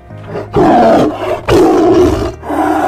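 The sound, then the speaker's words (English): A tiger roars loudly in two long, rumbling bursts separated by a brief pause, followed by the start of a third growl. No one speaks. “Bounce that tiger. Bounce him. Bounce. Got that roar.”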